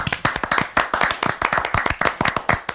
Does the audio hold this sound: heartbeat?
no